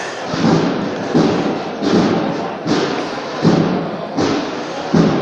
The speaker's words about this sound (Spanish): Suenan los tambores de Monte Calvario, de momento sin apuntar marcha, aunque pronto seguramente van a ser los propios costaleros los que van pidiendo marcha en este tramo de su itinerario